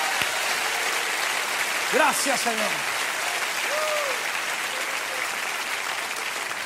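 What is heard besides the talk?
audience applauding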